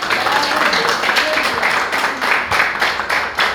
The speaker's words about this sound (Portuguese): Assim agradecemos ao Senhor e as palmas louvem ao nome de nosso Deus.